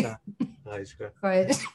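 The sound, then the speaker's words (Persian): A short cough mixed with throat-clearing and voiced bursts, a few rough sounds in quick succession, moderately loud and heard on its own. “من کرونا ندارم نه نه خواستم بگم که من کرونا ندارم فقط یه سرفه خوش”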